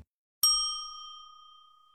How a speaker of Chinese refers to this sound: 好，接下来呢，我们来玩你问我答的游戏。小朋友们听到“叮”的声音后，请说出你的那一句。